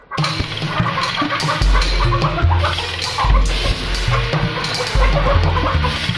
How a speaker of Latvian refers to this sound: Vistas ņēmušās kaudamās pa ādu, un tas tad nu bija tāds troksnis, kā katrā karā.